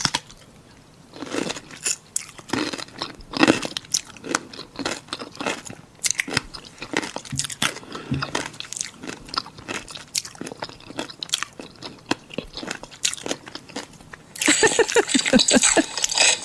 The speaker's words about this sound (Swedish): Då är det i alla fall en tjej som sitter och äter saltgurka och det är ljudet